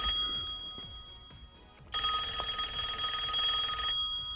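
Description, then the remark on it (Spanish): A telephone rings in a radio station newsroom with one loud, buzzing electronic burst lasting about two seconds, preceded by quieter tonal ringing; no one speaks. “Se recibía esta llamada en la redacción de Cope Euskadi”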